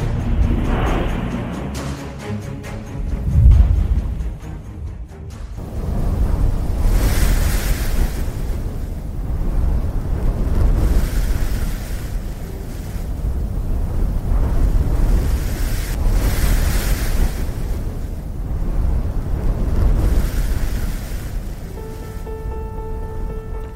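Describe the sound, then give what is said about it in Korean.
Strong desert sandstorm wind roars and gusts steadily for over twenty seconds, a dense rushing noise with surging swells, buffeting the microphone, with no voices. “황사와 사막한 뉴스에 이어서 사막의 모래바람 소리 들려드렸습니다.”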